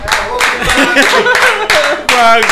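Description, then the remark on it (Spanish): A few bursts of hand clapping, loud and uneven, with voices and laughter mixed in across the short stretch. “Yo, lo, voy a aplaudir”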